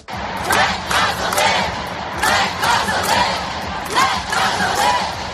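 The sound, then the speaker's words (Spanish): A large crowd of Jewish protesters shouts in loud, rhythmic bursts, voices rising together every second or so over a constant roar of crowd noise, blocking Grand Central station in New York to protest Israeli bombing of the Gaza Strip and call for a ceasefire. “gritos son de manifestantes eh, judíos eh, en uno de los puntos eh, clave de entrada y de salida de trenes de Nueva York, que ha quedado colapsada por estas protestas.”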